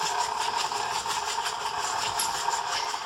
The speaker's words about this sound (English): My mixer always squeaks at the beginning. I have a KitchenAid mixer. I probably ought to have it serviced or whatever it is you do after a couple of decades of cooking with them because maybe it would stop squeaking.